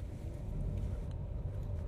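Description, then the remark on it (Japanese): A steady low rumble of a car's interior road noise while driving home from work in Shibuya, with constant engine and tire drone and no voices. “渋谷で仕事が終わり車で帰ります”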